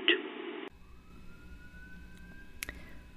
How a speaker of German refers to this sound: Oh. Polizei. Ja, ich höre die Polizei bei dir.